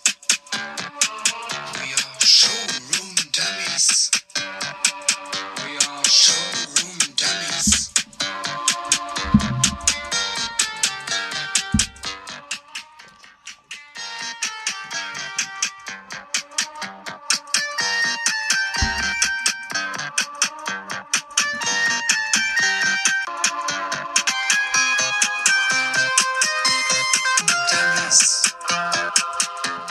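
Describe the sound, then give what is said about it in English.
A played song: a bright, synthetic electronic tune with simple beeping melodic lines and a steady beat, resembling an early-2000s ringtone, playing loudly and continuously for the whole stretch with no voices. “sounds like a, a ringtone from 2001.”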